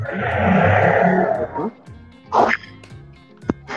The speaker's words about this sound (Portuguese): Alguém está com o microfone perto do cachorro aí.